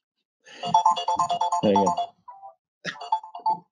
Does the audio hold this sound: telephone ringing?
yes